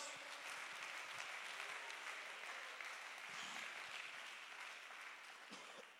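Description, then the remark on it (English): A church audience claps their hands steadily, a dense wash of overlapping claps that stays loud and even throughout, with no distinct beat and only faint murmurs beneath. “Somebody clap your hands in the house.”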